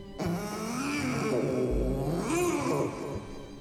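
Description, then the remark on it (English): A voice imitates a cat: a drawn-out, wavering growling yowl that swells into a breathy hiss near the end, fairly loud, with no other sounds around it. “Before she could even focus her eyes on the object, she heard a growl and a hiss.”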